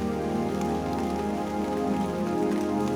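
Steady rain patters on a hard surface, a dense, continuous wash of droplets, even in loudness throughout with no voices or other sounds.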